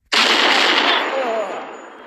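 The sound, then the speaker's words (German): A loud burst of gunfire erupts abruptly in a military base prison, a dense, crackling roar of rapid shots that holds for over a second before trailing off into a fading tail. “Schnell nachladen, Leute! Kick down, Wir sind fast an der Tür!”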